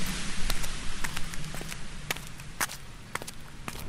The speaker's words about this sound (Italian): Un vento immancabile a Frasso accompagna i miei passi mentre attraverso, in modo per me insolito, vi confesso, gli scorci della mia infanzia